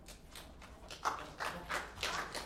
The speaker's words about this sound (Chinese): 掌声还可以再一个热烈。